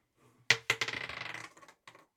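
A die clatters across a hard tabletop up close: two sharp knocks, then a quick run of rattling, tumbling clicks that fades out, followed by one last small tap.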